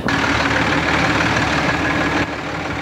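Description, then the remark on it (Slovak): A tractor from a farmers' tractor convoy, just parked on SMP Square in central Bratislava, idles with a steady, heavy diesel rumble and faint knocking, dropping slightly in loudness near the end; no one speaks. “No, práve sme zaparkovali traktor.”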